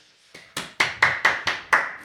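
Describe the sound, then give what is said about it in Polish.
A short run of about seven sharp hand claps in a steady, even rhythm, moderately loud, with no voices, applauding to welcome a guest to the studio. “zapraszamy, oklaski.”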